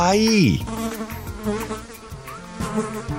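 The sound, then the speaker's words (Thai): An insect buzzes in flight, a steady droning hum with a wavering pitch that swoops down at the start, set against a faint musical backdrop. No one speaks. “จนกระทั่งสามสีกินข้าวเสร็จสามสีเห็นมแมลงตัวหนึ่งบินผ่านไปสามสีอยากจับมแมลงเลยวิ่งตามไป”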